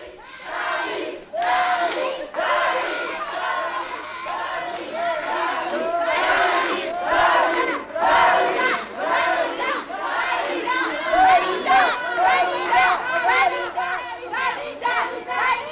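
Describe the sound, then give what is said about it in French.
A large crowd waiting for over an hour outside the doors of the Olympia music hall, Tuesday 15 January 1974 at 8:30 pm: a loud, continuous mass of overlapping voices, chattering and calling out, with occasional shouts rising above the steady hubbub throughout. “Mardi 15 janvier 1974, 20h30, une foule importante se presse depuis plus d'une heure devant les portes du music hall.”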